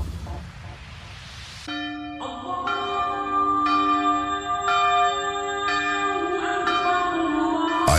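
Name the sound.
church bells ringing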